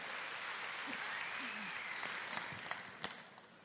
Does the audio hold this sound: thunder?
no